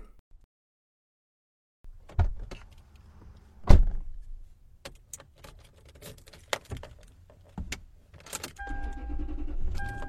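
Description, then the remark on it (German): Someone gets into a car to drive off: a heavy door thuds shut, followed by scattered clicks and rustling, then the engine is started, turns over and settles into a steady low rumble near the end. “Ich schalte dann auf, auf, auf Lautsprecher, weil ich steige ein, starte an, dann fahre ich los, okay?”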